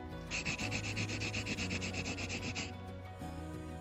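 An HB pencil scribbles quickly back and forth on a sheet of paper, a dry, hissy scratching in rapid rhythmic strokes for a couple of seconds before stopping, with a low steady hum underneath.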